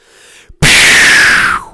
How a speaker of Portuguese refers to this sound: bombinha de fumo.